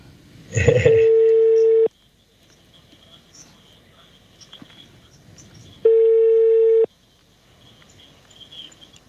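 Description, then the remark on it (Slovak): A phone call rings out: a brief click, then two steady, buzzing ringback tones, each about a second long, separated by a long pause with faint background noise and no talking. “Vypla, neviem, počkaj, dáme ju ešte raz.”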